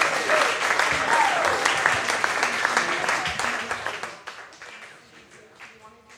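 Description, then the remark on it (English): A crowd breaks into loud, sustained applause with dense clapping that holds steady for several seconds, then tapers off into scattered claps as voices murmur near the end. “Let's, let's hear it one more time for”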